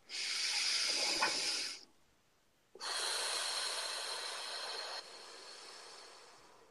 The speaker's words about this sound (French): Oui, on va dire ensemble une respiration.